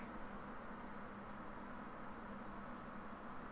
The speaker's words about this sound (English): Sounds like somebody stirred up a chainsaw in my backyard.